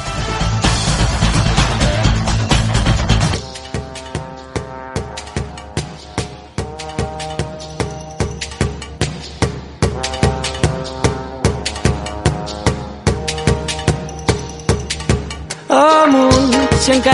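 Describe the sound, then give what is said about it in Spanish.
A pop song made in Catalonia plays loud, with a dense opening chord swell giving way to a steady, punchy beat over bass and sustained harmonies, briefly thinning out near the end. “Nos quedamos hoy en Panorama con la música que se hace en Cataluña y suena así.”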